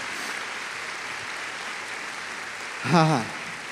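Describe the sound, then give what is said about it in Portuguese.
An audience applauding the name of the Lord, a steady dense wash of clapping at moderate volume, with a single voice crying out briefly over it near the end. “Então, pela fé, aplauda o nome do Senhor, porque Ele está entrando com a vitória na tua vida.”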